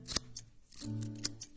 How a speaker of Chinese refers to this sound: 我去拿剪刀，咱先去去薄。注意听这个剪刀的声音，它越来越贴近你的右耳。先从右边剪